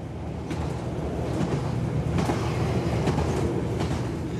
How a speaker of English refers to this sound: As the train makes its way, green fields flash by the window.